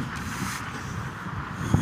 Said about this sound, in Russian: тут ветрено очень, прошу отнестись с пониманием, как говорится.